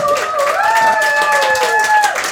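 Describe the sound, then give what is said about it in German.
An audience applauds, a dense wash of many hands clapping at a steady, fairly loud level, with a sustained whistle-like tone gliding over the top. “Dankeschön, der Applaus ist gerechtfertigt.”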